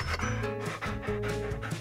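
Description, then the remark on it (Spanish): A dog pants rapidly and steadily to relieve heat, quick rhythmic breaths in and out, fairly loud, with no other sounds around it. “Es básico saber que los perros alivian el calor mediante el jadeo, para que el aire frío entre más rápido y refresque su cuerpo, ya que no tienen las mismas glándulas que los humanos para sudar en abundancia.”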